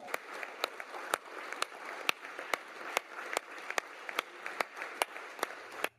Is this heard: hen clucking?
no